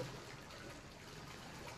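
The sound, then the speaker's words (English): Faint, steady swishing of water, as if something is stirring or moving through it, a soft continuous wash of liquid noise with no voices. “Something moving in the water.”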